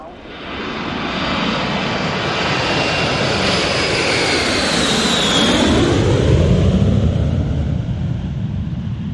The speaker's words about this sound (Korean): 필리핀으로 향하는 비행기 안에서 나는 비로소 앙카를 벗어났다는 생각에 잠시나마 안도감을 느꼈다.